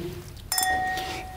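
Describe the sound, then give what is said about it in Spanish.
A single bright clink of glasses touching in a toast, clear, its high metallic ring sustaining and slowly fading over a quiet background. “Vamos a hacer rápido un refil. Salud, corazón.”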